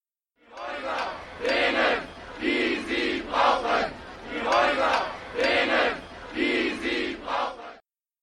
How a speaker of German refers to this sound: Die Frage nach bezahlbarem Wohnraum ist lauter denn je. Auf den Straßen Berlins ertönen die Stimmen gegen Verdrängung und für eine Stadt für alle.